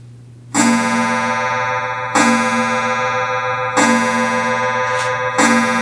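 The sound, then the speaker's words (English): A clock strikes four times, each loud, ringing chime spaced about a second and a half apart and sustaining into the next, with a low steady hum underneath and no talking. “Well, I'm glad we got that clock out of the way.”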